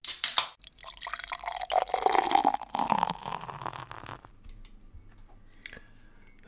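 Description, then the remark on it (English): Habanero beer pours steadily from a can into a glass, a gurgling, splashing stream whose pitch rises as the glass fills, then tapers into soft fizzing and a few faint drips. No one speaks. “So now it's in my glass and it's really fantastic.”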